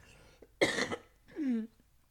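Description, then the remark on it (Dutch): A single sharp, harsh cough bursts out, followed by a short voiced throat sound as the breath settles. No talking. “Sorry hoor dat ik af en toe moet hoesten.”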